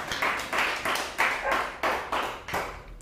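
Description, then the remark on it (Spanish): An audience claps together in a steady rhythm as applause offered to the Eternal (God), about six loud, full beats roughly half a second apart, with no talking over them. “Ofrezcamos un fuerte aplauso al Eterno.”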